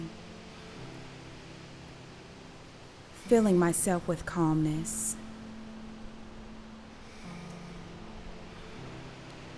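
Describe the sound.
A steady, soft hiss of light rain falls throughout, low and even in the background, while a calm voice speaks briefly in the middle.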